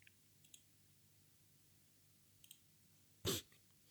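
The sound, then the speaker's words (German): A computer mouse clicks a couple of times faintly, then one louder, sharper click follows as a link is clicked, against a quiet background with no talking. “Ich klick da mal auf den Link.”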